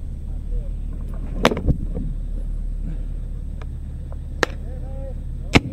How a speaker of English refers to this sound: Hand grenade compilation. Okay, let's try that. Yeah, check it out.